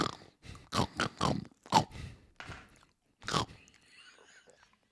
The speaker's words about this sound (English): god damn, this woman has been eating the whole time.